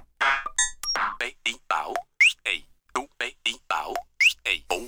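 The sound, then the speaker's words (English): A sampler in page edit mode plays back a 16-step pattern, placed in the order it was recorded: short chopped vocal-like snippets and a few electronic blips fire in a quick, steady rhythm, about sixteen hits, clear with no live talking. “the real magic happens, where you can construct your whole song within patterns and each pattern has like 16 steps and if i place this now chronologically how i recorded before then it sounds like”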